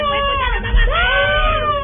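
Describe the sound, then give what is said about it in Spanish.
A voice imitates the panicked screaming of airplane passengers as the plane shook, a continuous, wavering high-pitched wail held for about two seconds, loud, with the pitch dipping and rising again. “y luego para abajo pero casi ya de manera vertical y nos sacudía y nos sacudía y todo el mundo gritaba Uy, y pánico.”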